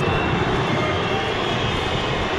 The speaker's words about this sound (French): Vous l'entendez à chaque ballon touché par Neymar ou Messi. Eh bien, les supporters ont copieusement sifflé les joueurs du Paris Saint-Germain.